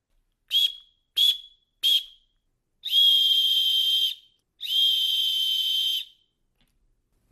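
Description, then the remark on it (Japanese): A disaster-preparedness emergency whistle, meant for calling for help, blown alone: three short, sharp shrill blasts followed by two long sustained piercing tones, loud, with no voices. “けど、防災笛は助けてもらうための笛だから、ちょっとね、イラってするっていうか、ザ ラってするっていうか、あんまり聞いたことがない音なんですよ。”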